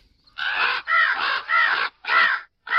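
A crow caws five times in a steady rhythm, each harsh, raspy call loud, separated by brief pauses, with no other sounds around it.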